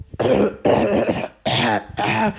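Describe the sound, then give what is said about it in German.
A person's voice imitates Arthur coughing after being made to ride through the wilderness and mud: four rough, raspy, throaty bursts in quick succession, fairly loud, with brief pauses between them and no other talking. “So, und mir tut es total leid, dann, wenn ich ihn durch irgendwelche Situationen zwinge oder ihn halt die ganze Zeit durch die Wildnis oder im, im Schlamm reiten lasse und ich denke mir so, Arthur, Arthur hustet dann halt so.”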